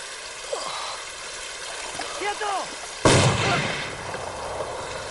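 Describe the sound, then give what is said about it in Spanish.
A single loud gunshot cracks out midway and rings off in a decaying tail, standing out over a steady wash of flowing water and a few faint chirps; a man wading waist-deep through flooded rice fields is shot. “recibe un disparo.”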